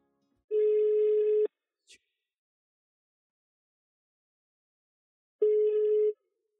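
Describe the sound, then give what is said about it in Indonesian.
An outgoing phone call's ringback tone: two clear, steady one-second beeps separated by a long pause of silence, with a brief faint click just after the first beep. “Mendingan langsung kita telepon aja.”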